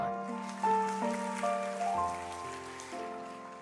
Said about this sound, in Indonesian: Kasih tepuk tangan.